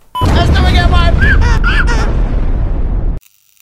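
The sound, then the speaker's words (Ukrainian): A loud explosion sound effect, played at the press of a button as a mock blowing-up of the Crimean Bridge, with a deep, heavy rumble that roars for about three seconds, then cuts off abruptly. Wavering tonal wails ride over the blast. “Давай, можем несколько раз даже что-то взорвать.”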